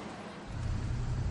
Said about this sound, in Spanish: Un coche circula por una carretera que discurre entre campos nevados.